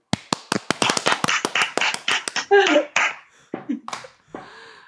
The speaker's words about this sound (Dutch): Moeten we dan weer klappen? Nee,